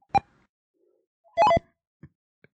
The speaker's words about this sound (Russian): Тамагочи? Да, Тамагочи.